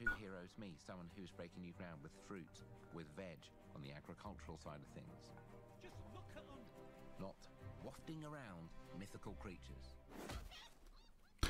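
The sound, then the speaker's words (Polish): Chickens cluck and squawk in a busy, overlapping stream of short calls, fairly loud, with a sharp burst of noise near the end. “Kurczaki, dobra, jak są kurczaki, to to jest Fable na 100% chyba już w takim razie.”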